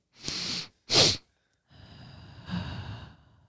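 Two quick, sharp inhales in a row, then a long, steady breathy exhale that lasts well over a second, a double-inhale-then-exhale breathing exercise. Nobody speaks.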